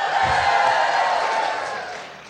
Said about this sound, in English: One of the things I've learned from this tour is that if you say the name of the city you're in, you'll get a big cheer. Seattle. Seattle.